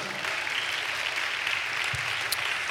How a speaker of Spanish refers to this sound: Alabado el nombre de Jesús. Denle un aplauso a Dios por eso, amado hermano.